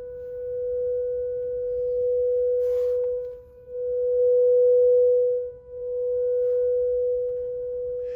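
A steady, piercing whistle from an Enyaq electric car, switched on and put into reverse after shopping, holds one high pitch for about eight seconds, swelling and dipping slightly in loudness, with a faint low rumble underneath and no talking. The car was driven about four kilometres with this whistle.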